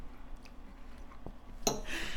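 Someone chews a mouthful of fried rice: faint, scattered mouth clicks give way to a louder burst of moist, crackly chewing that carries on to the end.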